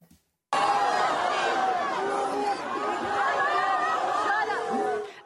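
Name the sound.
crowd chanting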